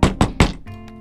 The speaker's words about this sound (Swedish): Det knackar på dörren igen.